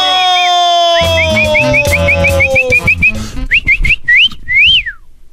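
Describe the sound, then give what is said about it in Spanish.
Someone whistles a quick run of short, swooping notes over lively music, then a few sharper chirps and a final long rising-and-falling whistle. “Deja pues tú tu ching... Chifladera.”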